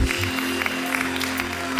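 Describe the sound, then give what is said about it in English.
An audience claps their hands for 30 seconds in praise to God in advance, a steady, dense patter of many overlapping claps, moderately loud, with a low steady hum underneath and no clear talking. “Clap hands in advance in advance.”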